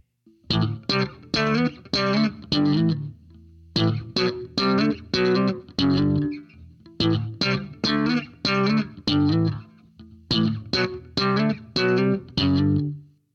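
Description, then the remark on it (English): A solo electric bass riff with sharply popped, snapping strings, pulled up by fingers placed under them and let snap back, the pop part of the slap technique, played in four repeated phrases of punchy, bright, percussive notes over a deep low end, loud with no voices. “placing his fingers under the strings, pulling them up, and letting them snap back”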